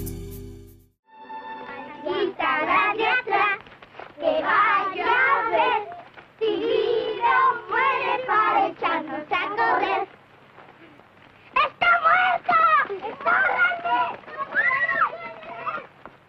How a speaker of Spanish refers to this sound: La primera es una canción infantil que de hecho interpretan los hijos de Macario